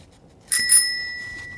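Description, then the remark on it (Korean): A bicycle bell rings with two quick metallic strikes, then its bright tone lingers and slowly fades. Clear, with no voices. “자전거 벨 따릉따릉 소리.”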